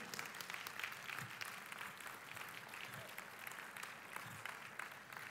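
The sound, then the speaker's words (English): An audience at City Centre applauds and cheers for its musicians, a dense, steady wash of clapping from many hands that holds for several seconds at an even loudness, with scattered voices mixed into the crowd noise. “By the way, let's come on, give them a, a cheer.”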